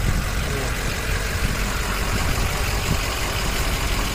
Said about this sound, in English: Okay. That was a truck parking near me. Out of all the times.